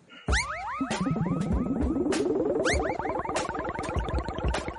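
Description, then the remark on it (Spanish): A short, loud, self-made electronic intro jingle, formerly used and since dropped, plays alone, with springy boing-like pitch swoops bouncing over a steady, rapid percussive beat and bright chiming hits. “Pero fíjate que tengo aquí la careta que usábamos al principio que la dejé de poner porque es que no, no, hay por dónde pillarla, pero a ver, me gustaba mucho, eh, porque me, me costó hacerla, escuchad.”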